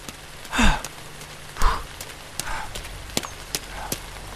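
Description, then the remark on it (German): Heavy rain pours steadily at a park, heard from under a bus shelter, a dense hiss punctuated by sharp drips and splatters, with a couple of louder whooshing gusts early on. “Das hat ja geschüttet aus Eimern.”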